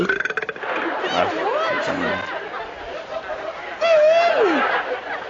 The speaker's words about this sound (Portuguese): Reconheceu pelo arroto, mano.